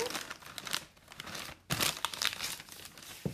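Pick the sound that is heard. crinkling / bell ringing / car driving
crinkling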